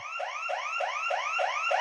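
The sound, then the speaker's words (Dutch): An electronic alarm blares in rapid, repeating rising whoops, about seven in two seconds, steady and fairly loud with no voices. “Bij mensen met chronische pijn gaat het alarm al af als een klein vliegje langs vliegt.”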